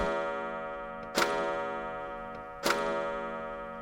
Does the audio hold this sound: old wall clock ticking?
yes